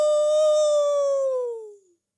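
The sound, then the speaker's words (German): A single high, sustained falsetto howl, a person imitating a wolf as a head-voice singing exercise, holding steady for nearly two seconds before sliding slightly downward and fading out. Loud, with no other sounds. “Oder der Wolf. Uhu.”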